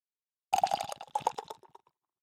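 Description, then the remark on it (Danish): Vienna Lager beer poured from a can into a glass, a brief burst of gurgling, bubbling liquid that starts abruptly and tapers off after about a second and a half. “Den kunne også øh, sige en dejlig skænkelyd.”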